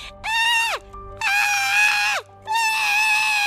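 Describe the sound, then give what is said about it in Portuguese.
A voice lets out three loud, shrill squeals in quick succession, each drawn out and harmonic with a sharp downward dip at the end, imitating the misbehaving youngest tiger of a circus. “E solta guinchos que me enervam assim.”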